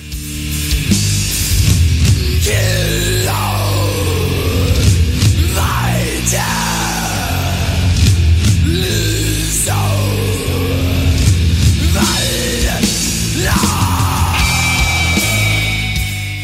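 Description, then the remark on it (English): Harsh, guttural screamed vocals roar over dense, loud heavy metal, the growling voice rising and falling in long bellowing phrases throughout without a break. “into the first vocal, and the vocals sound straight out of hell here”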